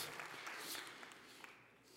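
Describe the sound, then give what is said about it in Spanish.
An audience applauding, a dense wash of many hands clapping at a steady level throughout, with no voices standing out. “Quiero que corras al autisterio, no que aplaudas.”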